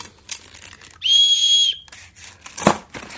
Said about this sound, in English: There's a whistle.